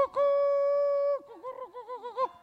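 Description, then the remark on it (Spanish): A carrier pigeon's coo in Pontevedra, Spain: one long steady hum, then a rapid wavering, bubbling trill, fairly loud, with no talking over it. “Porque non é posible o que se pasa aquí, en Pontevedra, todos estes anos, coas palomas mensajeras.”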